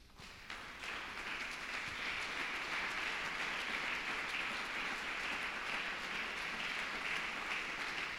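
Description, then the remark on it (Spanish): An audience claps for the Lord during a sermon, dense overlapping applause rising quickly after a brief quiet start and holding at an even level for several seconds, with no voices. “Mientras tú le das un aplauso al Señor, me das un minutito.”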